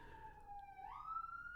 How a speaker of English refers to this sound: you can hear the sirens, the spoiler police are coming to get me.